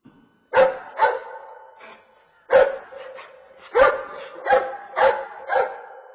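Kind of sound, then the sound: animal, dog barking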